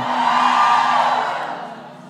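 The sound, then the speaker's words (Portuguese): A crowd of women in an audience, asked to give a shout, shouts together in one loud, sustained high-pitched cry that swells briefly and then gradually fades over about two seconds. “Dá um grito aí, um grito aí.”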